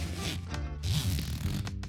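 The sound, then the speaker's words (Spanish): A trouser zipper is pulled down with a rasping ratchet of tiny clicks, a couple of seconds of steady scratchy teeth sound with a low rumble beneath. “Así suena como me bajo la cremallera de los pantalones.”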